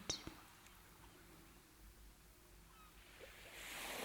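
Faint, steady hiss of surf washing onto a shore, swelling into a brighter rush near the end as a wave comes in; no one is speaking.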